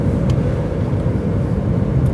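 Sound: car interior driving rumble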